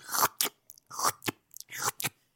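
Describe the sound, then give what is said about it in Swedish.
A voice mimics wet, squelching shoe steps of someone staggering toward a Jack Vegas slot machine: a run of four or so sloppy, sucking bursts in an uneven rhythm, with short gaps of silence between them. “Med ett fuktigt sugande ljud. Ja när det, din ena sko går mot golvet så är det”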